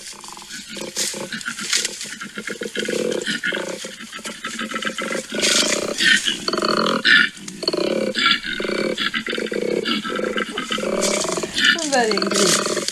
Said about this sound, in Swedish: Nej, en koala. Det var en koala det ja. Mm. Först tänkte jag hackspett, för det ja. lät som att den hackar liksom.